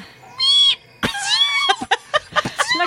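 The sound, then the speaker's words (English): A voice imitates a fart with squeaky, high-pitched noises: a short held squeal, a longer wavering one, then a run of quick sputtering bursts, fairly loud. “She said, "I remember like, your fart sound really different," and it was just like going”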